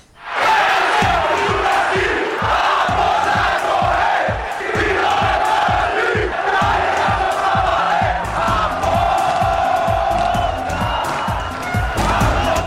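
A radio sports jingle for news about the Campinense football club: a loud, continuous roar of chanting, cheering fans over steady pounding drum beats, energetic and unbroken for about twelve seconds.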